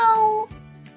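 kitten meowing

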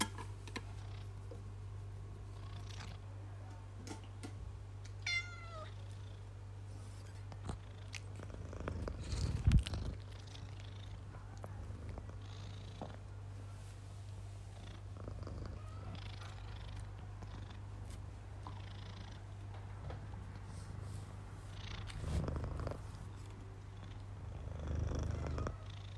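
cats purring

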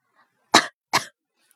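coughing twice

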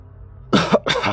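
coughing

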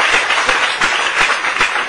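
audience applause

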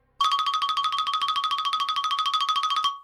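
phone ringing

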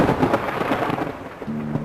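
thunder

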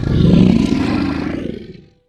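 lion roaring

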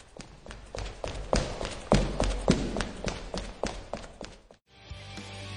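footsteps approaching

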